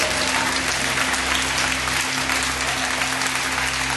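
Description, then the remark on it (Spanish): A large audience claps for God during a sermon, in sustained, dense applause that fills the space steadily for several seconds, with a low steady hum underneath and no voices standing out. “Aleluya, aplaude a ese Dios de milagros.”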